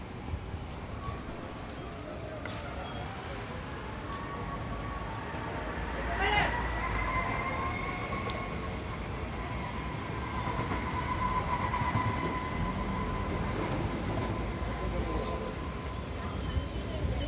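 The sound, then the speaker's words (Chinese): Fish market ambience recorded while walking to the inner market: a steady wash of crowd murmur from market workers and tourists and background hum, with a whining motor tone sliding up and down and one sharp clatter partway through. “这边我们来听一下一路步行到场内市场的环境声音。我们可以留意一下市场工作者和观光客的人声。”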